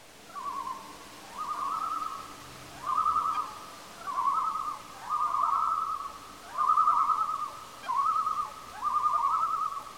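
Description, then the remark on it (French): Forest ambience in Magog, Quebec, recorded during a walk, dominated by a clear, repeated hooting call, about eight steady phrases in an even rhythm, over a faint low background hush with no talking. “Alors là, on est euh, très exactement au Québec, à Magog et quelqu'un, lors d'une balade, a enregistré le son de la forêt.”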